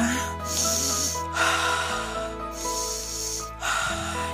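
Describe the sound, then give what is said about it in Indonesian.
Deep breathing, drawn in and pushed out twice in a slow, steady rhythm, each breath a loud, airy rush, over a faint steady hum. “inhale exhale inhale exhale tarik nafas buang nafas tarik nafas buang nafas”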